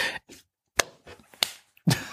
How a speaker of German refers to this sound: das Klatschen.